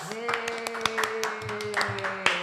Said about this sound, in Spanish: aplausos.